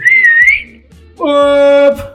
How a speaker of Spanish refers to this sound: Y en eso escuchas un chiflido.